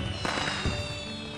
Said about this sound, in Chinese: 窗外又是一棚烟花炸开。